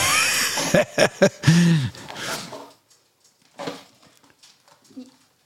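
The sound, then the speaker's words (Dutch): A dog plays with a plastic bottle toy: a dense burst of crinkling and a few sharp cracks, then scattered, quieter crackles with pauses between them. “We gaan even de hond eh, zijn eh, speeltje afnemen.”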